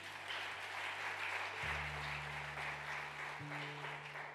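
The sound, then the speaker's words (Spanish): A large crowd applauds loudly and steadily for the Lord throughout, a dense wash of clapping, while low sustained keyboard notes hold underneath and shift pitch twice. “Del otro aplauso fuerte al Señor.”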